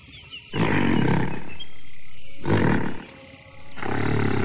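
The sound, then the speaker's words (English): A gorilla gives three deep, rumbling belch vocalizations in reply to a person, loud, each a low throaty burst lasting about a second with short pauses between them. “And his belching back to me means that our crisis is averted.”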